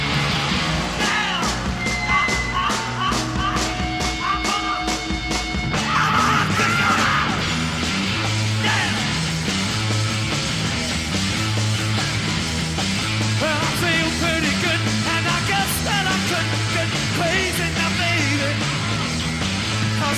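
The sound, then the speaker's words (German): A raw, loud proto-punk rock song from 1967–68 plays continuously, with shouted, yelling vocals over pounding drums, distorted guitar and a driving bass line; the explicit lyric parts have been cut out. “Das ist im Endeffekt der Vorläufer oder das ist die Geburtsstunde des Punkrocks, wenn wir da mal kurz reinhören wollen.”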